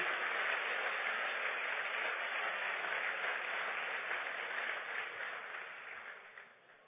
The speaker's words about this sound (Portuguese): Você pode aplaudir esse Senhor, amado? Aleluia.